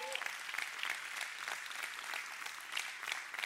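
A church audience claps steadily to celebrate recent baptisms, a dense, sustained patter of many hands with no pauses and no voices on top, holding an even loudness throughout.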